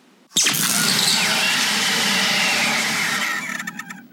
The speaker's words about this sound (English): The rock flickered, then disappeared in a quick flash of electricity. All that remained was an electric buzz that lingered in the air for a few seconds.